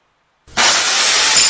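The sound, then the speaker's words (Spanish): After a brief silence, a loud, harsh wall of home renovation noise from kitchen and bathroom renovation bursts in, a bright crashing, grinding rush like breaking material that holds steady to the end, with no voices. Heard in an advert for Fidel Cocinas. “Este es el ruido de las reformas.”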